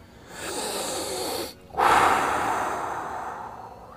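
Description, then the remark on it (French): A deep, airy inhale lasting over a second, a brief pause, then a long, forceful exhale that gradually fades, with no talking. “ok, ok, on va prendre toute une grande respiration.”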